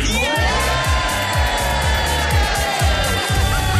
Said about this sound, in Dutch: Ja, we horen hier parlementsleden hard eh, lachen en juichen om het feit dat May dus weer een nederlaag heeft eh, geleden.